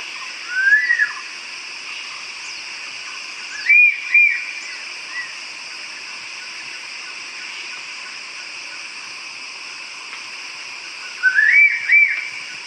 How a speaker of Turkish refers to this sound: Yuva olarak genelde kayalıkları tercih eden küçük akbaba tek eşli ve çoğunlukla iki yumurta yumurtluyor. Seslerine kulak verelim.